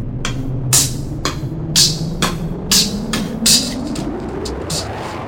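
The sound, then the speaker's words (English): A thin, lo-fi drum machine beat: crisp noisy snare and hat hits tick out a steady rhythm over a low droning bass hum, with no voices. “Does your drum machine sound like this?”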